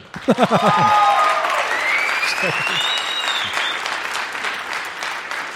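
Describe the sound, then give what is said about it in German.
A crowd bursts into sustained applause for a contestant's presentation, with dense clapping punctuated by whoops and whistles rising above it. A few shouted voices cut in briefly near the start, then the clapping carries on steadily. “Okay, also hier euer Applaus für”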